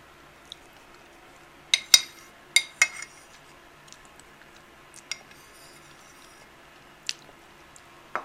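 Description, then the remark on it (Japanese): Wet, squishy chewing sounds while eating, with a quick cluster of smacking bites early on, then scattered softer clicks and smacks. No one speaks. “うまい食べ終わった”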